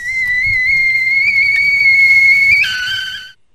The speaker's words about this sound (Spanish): A ver, miren, es una olla con agua hirviendo, no olla express.